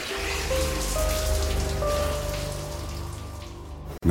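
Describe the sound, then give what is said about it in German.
Water from a shower runs in a steady hiss with a faint tonal hum beneath, continuing without pause for about four seconds before cutting off abruptly; a man takes a quick shower at home before breakfast. “da dachte ich, ich dusche noch schnell vor dem Frühstück.”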